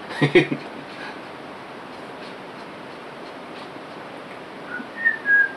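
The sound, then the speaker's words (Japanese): A person whistles at night, a short, slightly rising note near the end, fairly clear above a steady background hiss, after a brief vocal sound at the start. “蛇蛇が来るか、お化けが来るか人によって違うんだけどさ、ね、口笛ね”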